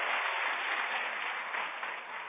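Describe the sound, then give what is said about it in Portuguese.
An audience at a church service applauds together, a dense, steady wash of many hands clapping that holds at an even level throughout, with no voices standing out above it. “Quem recebe essa palavra, aplaude ele bem forte.”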